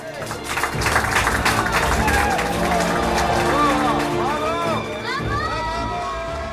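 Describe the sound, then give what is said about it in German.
A team claps steadily and enthusiastically after their solar plane has successfully landed in Abu Dhabi, with excited voices and cheers rising over the applause, sustained for several seconds. “Und hier haben wir mal rausgesucht, äh, hört man das Team klatschen, als das Solarflugzeug dann gerade erfolgreich ich wieder gelandet war in Abu Dhabi.”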